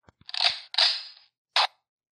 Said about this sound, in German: Was war das denn? Das war ein Schuss, aber ich glaube, die Batterie ist leer.